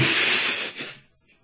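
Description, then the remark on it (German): A single sneeze, a loud breathy burst of spraying air that fades out within about a second, followed by quiet. Nobody speaks. “Gesundheit.”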